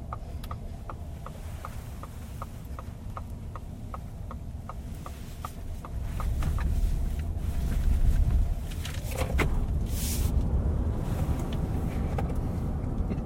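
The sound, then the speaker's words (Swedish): A heavy, large car accelerates hard as the driver presses the right pedal while rolling out onto a street: a low rumble with steady clicking gives way, about halfway through, to a louder, swelling roar of road and wind noise. No one speaks. “Så låter de när man trycker på högerpedalen.”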